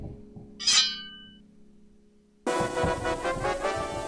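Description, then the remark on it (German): A sword blade gives a single bright metallic clink that rings out and fades over a low steady hum, followed by an abrupt loud wash of dense noise. “Ein Schwert.”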